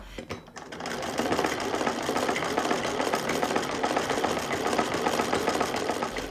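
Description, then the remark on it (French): A Singer sewing machine starts up after a brief pause and runs steadily, its needle clattering in a fast, even mechanical rhythm with a constant whirring hum, fairly loud and with no voices. “Et c'est là où elle, elle s'est servie de sa machine singère euh, pour euh, faire de la couture.”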